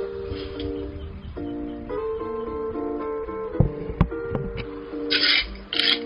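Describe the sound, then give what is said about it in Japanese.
Gentle Hawaiian-style music from a recommended Hawaiian station on Amazon Music plays steadily through an Alexa smart speaker, with sustained melodic notes gliding between pitches and a few soft knocks and brief scraping noises near the end. “アレクサ、ハワイアン流して。アマゾンミュージックでおすすめのハワイアンステーションを再生します。”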